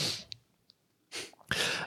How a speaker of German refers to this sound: Räusper